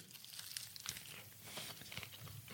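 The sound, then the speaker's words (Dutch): Biting and chewing cheesecake topped with fresh, crunchy blueberries, mouth held near the microphone: soft, wet mouth noises and small crunchy crackles going on steadily for a couple of seconds, with no talking. “Ik vind dit echt serieus een van de betere cheesecakes.”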